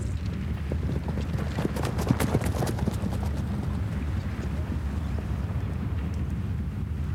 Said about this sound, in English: One of them threw me on his horse and galloped off with me on its back. As the corporal spurred his horse, I watched my life slip through my fingers.